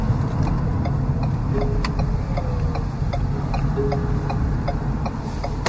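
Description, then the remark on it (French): A quiet hybrid car drives along a riverbank with a low, steady road rumble and soft hum, faint light ticking over the top, and no voices. “j'adore ça, Louis, des voitures hybrides. C'est le silence qui est comme.”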